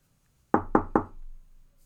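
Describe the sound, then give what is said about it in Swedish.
Three quick, evenly spaced knocks on a wooden door, fairly loud, each with a short hollow ring that fades. “Då knackade på dörren och Björn Olofsson steg in i förstugan.”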